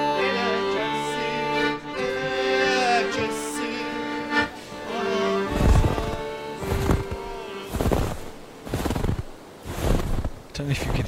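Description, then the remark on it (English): Footsteps crunch through snow at a steady walking pace, about one step per second, each crunch clear, as people walk by the river in the centre of Kars. They follow a stretch of sustained tonal background sound. “but there's snow crunching underfoot as we walk by the river in the centre of Kars.”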